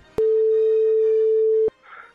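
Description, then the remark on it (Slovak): A single steady telephone ringback tone of an outgoing call to a school in Piešťany, asking for the director, sounds for about one and a half seconds, clear, beginning and ending abruptly, followed by faint background noise. “Ja, že voláme riaditeľovi, hej?”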